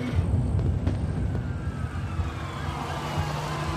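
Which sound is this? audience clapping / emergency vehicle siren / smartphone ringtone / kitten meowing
emergency vehicle siren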